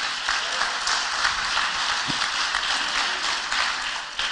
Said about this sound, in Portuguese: Pode aplaudir mais forte a palavra do Senhor.